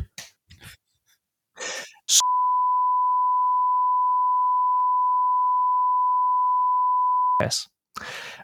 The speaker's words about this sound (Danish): Næste historie. Mikkel klar med bip.